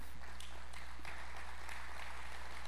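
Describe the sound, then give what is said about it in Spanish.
A crowd applauds for God with steady, dense clapping that is moderately quiet, over a constant low electrical hum, with no voices standing out. “Está bien, si quieres aplaudir para Dios, está bien.”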